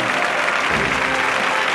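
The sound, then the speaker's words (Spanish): Sustained, dense applause from a large crowd in the street, including people on balconies, a steady wash of many hands clapping at once with no pauses, loud throughout: an ovation for the flag of Spain and the army representation at the Soledad de San Lorenzo procession. “Palmas no, una ovación en toda regla.”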